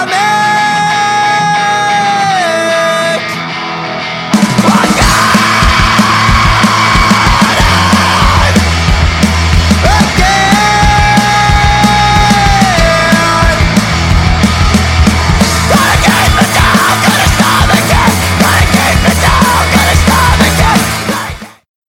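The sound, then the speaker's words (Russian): A loud emo rock song with distorted guitars, pounding drums and harsh screamed vocals; after a brief opening section the full band crashes in and keeps driving hard until an abrupt stop. “ты заходишь в кофейню, слышишь там небольшие нотки скрима”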